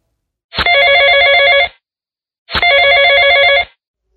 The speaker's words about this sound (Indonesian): Terdengar keras bunyi telepon genggam, hingga memecah kehusuan ibadah. Ya, itulah yang gue rasakan siang tadi.